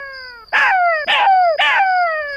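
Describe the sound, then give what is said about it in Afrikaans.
A jackal howls loudly, one long wavering, gradually falling cry broken by three sharp yipping bursts at regular intervals, with no other sounds around it. “Jakkal sien dit en besluit hy moet sy maat help. Hy begin hard chunk.”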